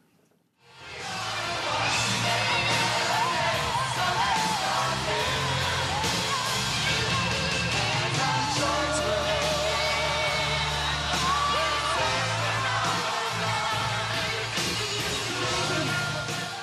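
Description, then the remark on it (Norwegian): A huge rock concert crowd at the Live Aid charity concert yells, whoops and cheers in a loud, continuous roar that swells in after a quiet first second and holds steady, with a low rumble underneath. “Det er på dagen 30 år siden rockekonserten og veldedighetsprosjektet Live Aid fant sted. Og her er et ørlite gjenhør.”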